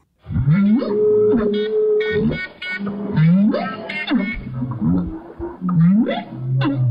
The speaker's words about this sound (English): It took me a few listens to pick out the distinguishing moment. But here's what the whale was doing when David showed up.